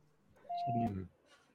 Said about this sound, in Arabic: هو جاله تليفون واضح؟ يمكن اون يعني كول